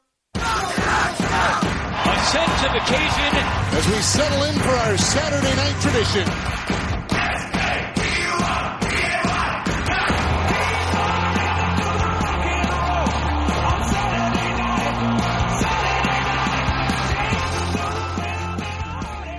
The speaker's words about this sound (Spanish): Y escucháis la intro de Hockey Night in Canada este año, esa clásica retransmisión de cada sábado en la CBC.